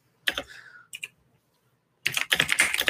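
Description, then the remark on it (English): Keys clatter on a computer keyboard in quick bursts: a short flurry, a pause with a couple of isolated taps, then a sustained run of rapid typing. “Love that typing.”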